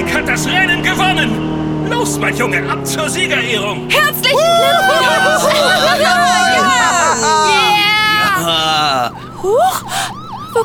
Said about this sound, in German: kommt das Polizeiauto denn plötzlich her? Was ist passiert? Das fährt ja kreuz und quer über die Rennstrecke.